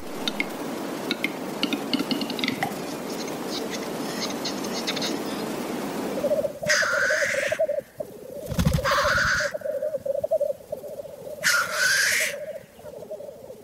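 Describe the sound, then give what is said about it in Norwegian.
A capercaillie's lek display in the open: dry clicks and knocks build up, then a low droning note runs underneath while three sharp, hissing scraping bursts break out at intervals. “Nå skal vi først høre på Tiurleik.”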